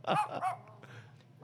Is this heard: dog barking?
yes